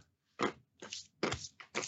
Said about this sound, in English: So cheers. And uh, a couple of almonds, wash it down.